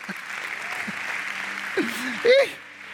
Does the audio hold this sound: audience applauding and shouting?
yes